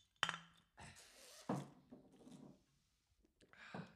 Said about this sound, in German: Ähm, okay, Cheers. erstmal. Hey, hey, mit mir hey, auch hey. anstoßen.